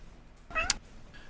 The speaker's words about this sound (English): Hello, cat. anyway, um, we've got a cat joining us, so we're now a four-member podcast.